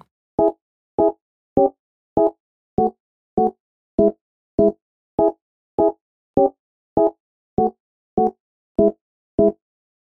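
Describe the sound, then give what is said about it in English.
A keyboard with a carnival-style sound plays short, staccato chords in C sharp minor, about fifteen evenly spaced stabs in a steady rhythm. They are clear, with no voices or other sounds around them. “So I went ahead and got a keyboard with a carnival sort of sound to it.”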